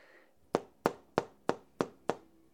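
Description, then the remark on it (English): Six sharp, evenly spaced taps on the glass of a picture frame holding a pretty big print that hangs over a couch, fairly loud, each ending in a short bright ring. The taps come in a steady rhythm, with no voices. “Hear that? That's a glass picture frame from pretty big print.”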